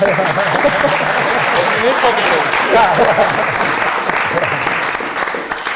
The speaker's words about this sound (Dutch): Maar ah, toch applaus, vind ik.